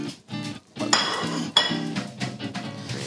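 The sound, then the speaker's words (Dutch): Ceramic plates clatter and clink as they are stacked, with two sharper knocks standing out among lighter rattling, fairly loud, no voices over it. “Heb je een bordje met op te leggen? Ja, ik heb heel veel bordjes.”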